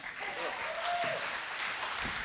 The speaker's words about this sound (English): You can clap for him.